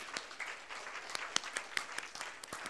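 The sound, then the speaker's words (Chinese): A Christian audience applauds to give glory to God, with a steady patter of many hands, punctuated by sharper, louder individual claps at irregular intervals, with no one speaking. “都归给他，相信的拍手，把荣耀归给他，好不好？”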